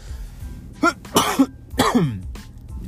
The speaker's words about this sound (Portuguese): Desculpa aí por essa torcida, eu vou tentar, essa torcida, né? Eu vou tentar aqui não tossir mais na, na orelha de vocês. Mas é que eu tô começando a ficar gripado.